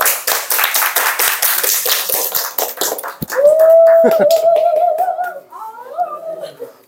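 A crowd claps loudly for about three seconds, a dense, steady patter of many hands. The applause then thins out as a long, wavering high whoop-like tone rises over it and trails off.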